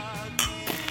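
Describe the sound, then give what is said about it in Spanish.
A single sharp clink of glasses of michelada touching in a toast, bright, with a faint ringing tone lingering around it and a bit of clatter just after. “Ah, salud. Salud. Sí, porque. Estamos tomando michelada. Escuchen esto.”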